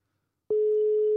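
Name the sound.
telephone ringing tone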